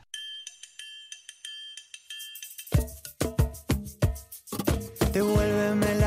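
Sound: song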